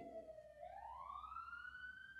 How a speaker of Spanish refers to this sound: Está pasando la ambulancia. O la policía. Espero que esté todo bien.